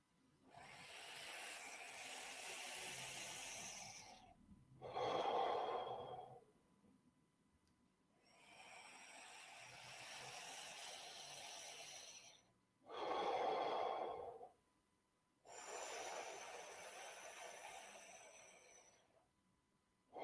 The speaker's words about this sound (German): Und wenn du gerade nichts brauchst, dann atmest du einfach so eben mit dieser sogenannten Schlürfatmung ein ich mache das mal vor, sieht ein bisschen lustig aus, ne?